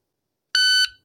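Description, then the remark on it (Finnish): A single loud electronic start beep from a shot timer, the judge's device for timing a shooting competition stage, a steady harmonic-rich buzzy tone lasting about a third of a second, cutting off abruptly into silence with no voices. “tämä on taimeri ja tämä on se tuomarin apuväline, millä se aika mitataan.”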